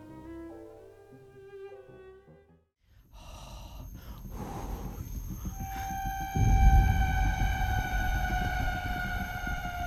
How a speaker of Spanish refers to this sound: Es que sonaba como unas ballenas lejanas. y Las, ballenas del espacio. Sí. no había nada, parecía una ballena ahí, ¿o sí?